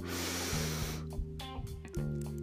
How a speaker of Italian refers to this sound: Quindi Iniziamo a metterci in ascolto e a respirare. Da sdraiate, inspiriamo dal naso